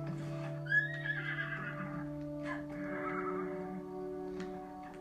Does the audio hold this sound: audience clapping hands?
no